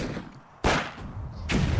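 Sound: rifle gunfire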